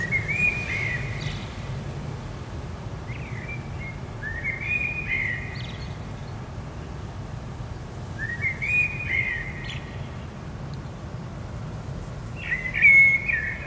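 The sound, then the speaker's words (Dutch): A blackbird sings outdoors in four separate phrases of fluting, warbling notes with pauses between them, heard through an open bedroom window in Zeeland, Netherlands, over a steady low hum of background noise. “Dan kun je zelf luisteren. Naar dat prachtige geluid van de merel.”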